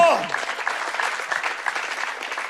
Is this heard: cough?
no